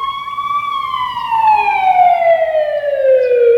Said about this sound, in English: an ambulance pulled away from the home of their neighbor, old Mr. Jeffries.